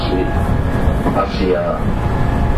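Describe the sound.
Steady, loud rumble inside a moving JR West 223 series electric train on a JR Kobe Line rapid service from Kobe to Osaka, Japan, with a thin motor whine running through the constant rolling noise and a muffled announcement-like voice faintly underneath.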